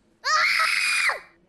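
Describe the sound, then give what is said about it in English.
A nine-year-old child lets out one loud, high-pitched scream lasting about a second, piercing, swooping up at the start and sliding down as it cuts off, with no other sounds around it. “that was the sound of a nine year old”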